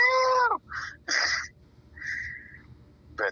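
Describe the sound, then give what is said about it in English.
A series of cat meows, beginning with a long, loud, falling yowl and followed by several shorter, higher mews at irregular intervals. The calls are clear over a faint low rumble. “Anybody who wants to torture cats should be able to torture them and hear the cat go. Meow!”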